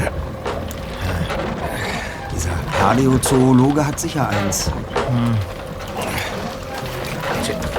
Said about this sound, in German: Langsam und behäbig glitt das Boot auf den Black Lake hinaus.